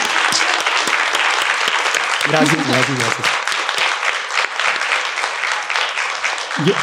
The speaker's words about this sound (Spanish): ¿Les gustó la historia? Damos un aplauso.